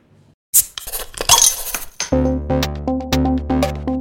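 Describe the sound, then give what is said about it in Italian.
A short intro jingle opens with a loud crash of clinking, breaking glass, then shifts into punchy, rhythmic musical notes with a steady pulse. No one speaks. “Ora, come di consueto, sigla e poi si comincia.”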